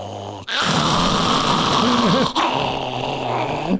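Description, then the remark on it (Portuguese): A person imitates a dog's growl, baring their teeth like a dog as someone comes near, with a low, rough, sustained rumble that wavers in pitch, continuous for a few seconds with a brief break midway. “Rosnando aí eu assim, ó, não, eu comecei, tipo cachorro, quando vai chegando perto, e eu com o dente, ele vindo, olha, aqui tá aqui.”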